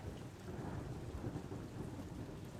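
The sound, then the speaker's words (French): A thunderstorm rumbles steadily with low, rolling thunder and dense rain hissing throughout, a continuous heavy wash of sound with no voices. “Je voudrais que la tempête fasse encore bien plus de boucan, que les toits s'écroulent, que le printemps ne revienne plus, que notre maison disparaisse.”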